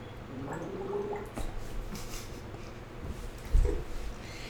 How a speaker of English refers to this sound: Oh, don't worry, just gargling on a podcast. Sometimes you gotta gargle, you know?